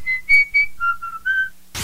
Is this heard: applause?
no